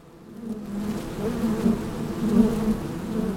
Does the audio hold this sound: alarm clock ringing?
no